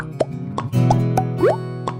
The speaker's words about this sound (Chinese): 就是路灯亮起来的时候，然后再配合那个泡泡冒出来的声音，哇，这个就是你会觉得那个心动的感觉都已经在这个场景的所有画面和声音里面。